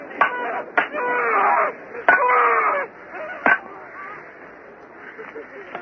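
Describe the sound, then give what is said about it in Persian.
Men scream and wail in anguished bursts as they are nailed to crosses, punctuated by four sharp, loud hammer blows, with the cries swelling after each strike before trailing off into quieter moans. “فریاد مصروبین که در حال کوب شدن بر صلیب هستند شنیده میشود”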